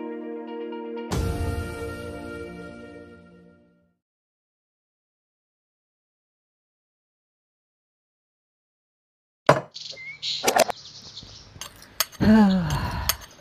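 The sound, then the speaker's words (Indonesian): A spoon clinks and scrapes against a container in a quick, irregular flurry of metallic taps while scooping sugar, with about five spoonfuls of sugar left, after a long stretch of silence. “gara-gara corona sekarang susah nyari gula untung masih ada nih 5 sendok lumayan”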